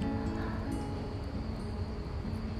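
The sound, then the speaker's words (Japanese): A soft, continuous chorus of insects chirping outdoors in Tokyo in the early morning, a steady high trilling layered over a low ambient hum, with no voices and no clear breaks in the sound. “虫さんたちの声が響いています”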